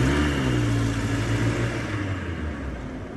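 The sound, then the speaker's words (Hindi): A police jeep engine rumbles as two people drive off to the station in it, its low revving hum shifting slightly in pitch before gradually fading. No voices are present. “वो दोनों कावेरी की पुलिस जीप में बैठे और स्टेशन के लिए निकल गए”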